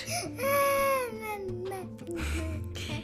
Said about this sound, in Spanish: Macario, asustado, se echó a llorar.